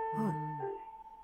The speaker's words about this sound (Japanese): はい、懐かしいチャイム。ねえ。これ職場のチャイムなんですよ。